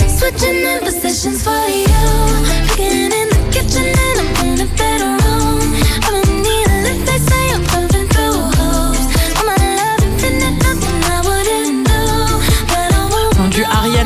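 A pop song plays at full, steady volume, with a thumping bass line, crisp regular beats and a smooth sung melody gliding over layered synth chords, no talking over it.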